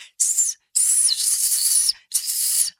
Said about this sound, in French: un sifflement sur sa gauche, il tourne les yeux et aperçoit un... Un serpent Un serpent aux écailles noires